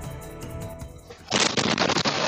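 A house explosion in a played video erupts suddenly and loudly after a quieter stretch, its roar sustained for about a second with crackling, pulsing bursts.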